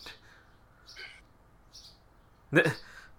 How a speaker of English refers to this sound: that a bird in the background? Yeah, of course it is. Um, I have the windows open because it's so nice outside.